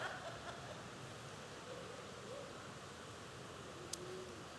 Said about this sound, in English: You guys act like you've never heard rain before. I know we live in Texas, right? Yeah. It does happen from time to time.